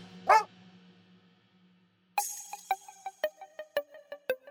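A dog lets out one short, rising yelp, then after a quiet pause breaks into a quick series of sharp barks, with no voices.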